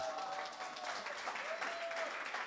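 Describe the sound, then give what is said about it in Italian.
Steady audience applause at the morning gathering of the Shout 2022 event, a dense crackle of many hands clapping at an even level, with a faint whistle-like tone sliding through the middle. “Buongiorno, buongiorno, facciamoci un applauso.”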